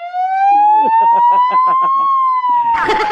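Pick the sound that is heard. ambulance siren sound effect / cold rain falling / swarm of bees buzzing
ambulance siren sound effect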